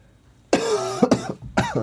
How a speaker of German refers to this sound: es tut mir leid, wenn ich äh, das Husten nicht so gut unter Kontrolle habe. Es ist die Tage schwierig, schwierig.